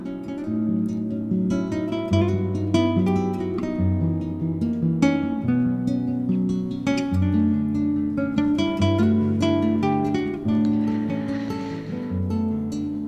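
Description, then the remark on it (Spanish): A slow, gentle new age arrangement of a classical pavane from the Impressionist era, with plucked melodic notes over warm sustained low harmonies, playing steadily and fairly loud with no voices. “temas clásicos versionados por artistas de New Age y nuevas músicas eh, sobre la época del impresionismo y suena así de deliciosa, por ejemplo, esta pavana de”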